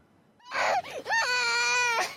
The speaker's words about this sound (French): Des pleurs, et de la colère avant un dernier au revoir entre cet enfant et son père, obligés de rester sur place pour se battre.